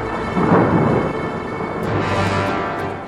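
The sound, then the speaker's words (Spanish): Deep thunder rumbles continuously beneath a dense wash of heavy rain, with a swelling roll early on and steady downpour hiss throughout, fairly loud, no voices. “Fuera, arrecia la lluvia. Truena sin parar.”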